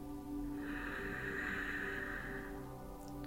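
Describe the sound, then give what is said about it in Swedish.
A long, steady deep breath drawn in to fill the lungs, as guided in a breathing exercise, lasts about two seconds: a soft, airy hiss that swells and fades, with a low, steady hum beneath it and no talking. “Så ta nu ett djupt andetag in.”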